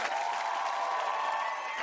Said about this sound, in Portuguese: Recebam com aquele aplauso o …!